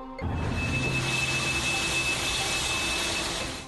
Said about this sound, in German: Was Sie im Hintergrund hören, ist das Spritzwasser, mit dem die Feuerwehr damals die Flammen zu löschen versuchte.